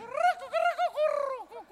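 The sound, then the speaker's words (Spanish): A human voice imitates a pigeon's cooing with a series of warbling, rising-and-falling coos, fairly loud, with no other sounds around it, from a member of the Pontevedra carnival murga As Palomas de Pontevedra at the 29th comparsas contest in O Grove. “Somos as palomas de Pontevedra.”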